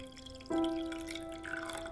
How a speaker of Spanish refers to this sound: Jean toma la cafetera y sirve dos tazas.